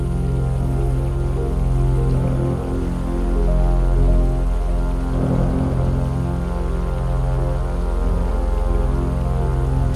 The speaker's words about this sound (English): Steel trellises rose above them and rooted into the low riverbed. Water burbled over the smooth stones 15 feet down.